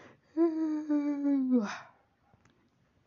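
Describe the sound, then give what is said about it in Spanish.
A person imitates a cat that yawned like a human: one drawn-out, steady voiced tone that sags slightly in pitch and ends in a breathy exhale, followed by near silence. “El Totoro bostezó como humano.”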